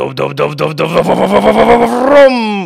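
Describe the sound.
A man's voice imitates a V8 engine, starting with a low, pulsing burble that builds into a rising, revving roar over nearly three seconds, loud.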